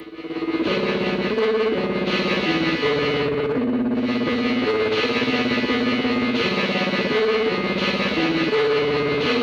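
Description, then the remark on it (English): A heavily distorted, effects-laden guitar plays a stepping melody that rises and falls in sustained notes, loud and continuous with a spacey, washed-out tone and no voices. “We're actually it's almost like we're getting some melody or something, and at this yes.”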